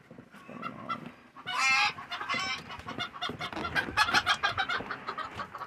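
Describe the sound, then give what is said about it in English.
A flock of chickens clucks and squawks continuously, with a loud, harsh squawk burst early on and busy overlapping calls throughout. “I need to sell some chickens, apparently.”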